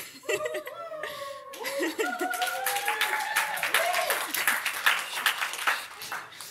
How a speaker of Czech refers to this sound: dneska tleskáme tam nahoru. Panu Bohu tleskáme za to, že mě semka dostal.